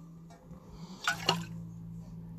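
A short splash of wine, decanted for about an hour and a half, poured from a decanter into a glass, a quick liquid gurgle with a faint glassy ring against a low steady hum.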